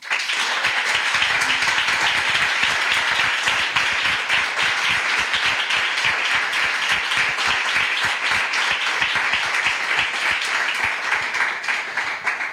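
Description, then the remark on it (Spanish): Steady, sustained applause from a large audience on the show El Hombre Luna, welcoming guests Manuel Burque and Quique Peinado, many hands clapping densely and loudly for about twelve seconds without pause, with no voices standing out. “Para nosotros es un verdadero placer y por eso el primer aplauso de esta tarde es para ellos.”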